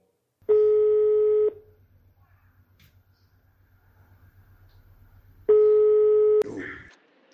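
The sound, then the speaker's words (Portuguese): A phone line's ringback tone sounds twice as a call is placed to the mayor, each steady one-second beep followed by a long pause over a faint low hum, then a click and rustle as the call is picked up. “Vou ligar pro homem, né?”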